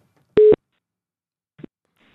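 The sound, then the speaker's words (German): A single short, loud beep of an outgoing phone call's ringing tone, steady in pitch, followed a second later by a faint brief click on the line. “Der Hikmet ist Corona-bedingt wegen hier Social Distancing weiterhin am Telefon. Und da rufen wir jetzt mal an.”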